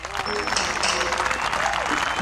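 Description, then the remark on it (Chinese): Steady applause welcoming a singer about to perform fills the whole stretch, a dense wash of clapping hands with a few faint voices and a brief whistle-like tone mixed in. “来，掌声欢迎！”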